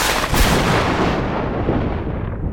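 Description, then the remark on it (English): A loud crack of thunder bursts out and rolls into a deep rumble that slowly loses its sharp edge over a couple of seconds, with no voices. “And suddenly, with a crack of thunder, the whole of the space dimmed menacingly.”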